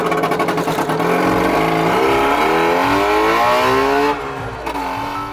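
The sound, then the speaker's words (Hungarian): The small two-stroke engine of a Trabant, a plastic-bodied car, revs up loudly, its buzzy pitch climbing steadily for several seconds before dropping back to a rough idle. “Persze ez nem egy igazi műhold volt, hanem egy műhold nevű autónak nevezett műanyag jármű, vagyis egy Trabant.”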